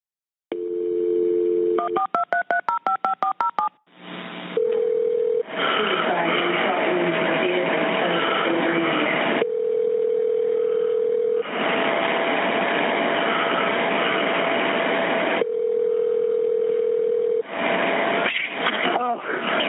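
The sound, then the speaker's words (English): A steady dial tone gives way to a quick run of about a dozen touch-tone key beeps as a dispatcher calls back a caller, then a repeating ringback tone sounds over a hissy, muffled phone line. “The dispatcher calls back to try to finish his line of questioning”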